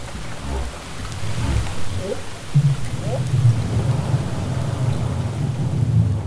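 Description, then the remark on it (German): A mother and calf whale trade low, rising whoop contact calls through a deep, rumbling underwater hiss, a couple of short upswept whoops over a steady low drone. The mother whoops first and the calf answers with a softer whoop, imitating her. “Das waren auch wieder Wupp kontaktrufe Und am Telefon hat sie mir das so beschrieben, dass sie zuerst ein WUP von der Mutter gehört hat und dann ein leiseres Whoop vom Baby, das die Mutter wie eigentlich nachgeahmt hat.”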